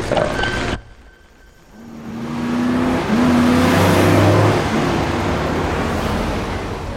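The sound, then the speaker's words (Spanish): Two pickup trucks, one a green Ford Lobo, roar up from behind a bus, their engines swelling into a loud, steady drone with rising revs and a low rumble. Nobody speaks. “De pronto, dos camionetas se acercan por la parte de atrás del autobús.”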